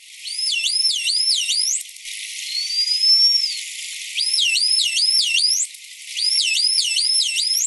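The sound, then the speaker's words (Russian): Bottlenose dolphin signature whistles: high, wavering whistles repeated in quick identical bursts of three or four loops, with a single rising sweep between bouts. No voices, just the whistles over faint hiss. “Но вот э, оказалось, что афалин где-то до 80% всех тональных сигналов – это автограф.”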